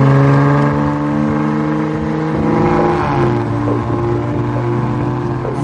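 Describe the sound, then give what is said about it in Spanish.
A Maserati Ghibli sports car engine revs loudly, its deep throaty tone climbing and dipping in pitch as the throttle is worked, with no voices over it. “Este coche sencillamente antes, es una maravilla. Yo lo he conducido y es sencillamente”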